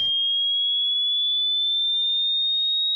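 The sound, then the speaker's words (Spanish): A single steady, high-pitched pure tone sounds for about three seconds, clear and constant, rising very slightly in pitch, a beep from an audiometry hearing test, with no other sounds. “A Jacinta le hicieron una audiometría Ahí le pedían que levante la mano cuando escuche los pitidos.”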